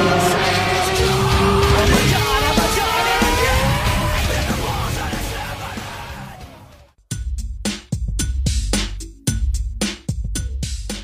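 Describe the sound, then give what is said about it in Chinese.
An AE86 car slides through a turn in a fast inertia drift, with loud, wavering tire squeal over a roaring engine for several seconds, then the sound gives way to a run of sharp, punchy rhythmic bursts. “昨晚我输给一辆 A 一八六，他用惯性漂移过弯，他的车很快，我只看到他有个豆腐店的招牌。”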